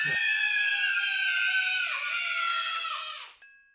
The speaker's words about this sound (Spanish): La gente que llegaba a pasar por la madrugada veía la luz del ala oeste encendida, una silueta de mujer y escuchaba gritos desgarradores de niños.